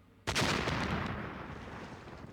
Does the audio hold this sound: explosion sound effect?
yes